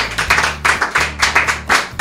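Studio applause for a guest's testimony sounds as a run of rhythmic handclaps, fairly loud and regular, over a low steady hum with no one talking.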